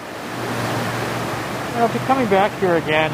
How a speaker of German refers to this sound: Noch immer kann er schwer ausdrücken, was in ihm vorgeht, wenn er im Hall des herabrieselnden Wassers um die tiefen Gruben geht, in denen einst die Türme standen und die heute Gedenkstätte sind.